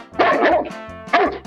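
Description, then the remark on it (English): The Darling family dog barks loudly at a boy, Peter Pan, who has come in through the window, in short, throaty bursts, a quick double bark followed by a pause and then a single sharper bark, with no one talking. “The dog jumps at the boy.”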